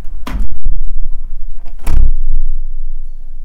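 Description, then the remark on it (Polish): A balcony door is shut gently as a test of how very low frequencies are picked up, giving two deep, bassy thuds about a second and a half apart, each with a brief rattle, then a low rumble fading into quiet. “Może jeszcze raz troszeczkę ciszej go zamknę.”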